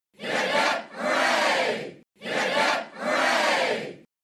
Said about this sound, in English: When the good news spread that all the men were alive, a great shout was made that woke up everyone there.